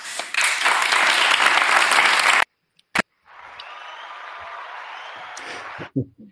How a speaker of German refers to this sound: in dieser Sendung achtet mal darauf, wann geklatscht wird. Ja? wenn Herr Baum eine, der, eine, eine, eine vollkommen absonderliche Plattitüde raushaut, mit der nichts gesagt ist, das Publikum reflexartig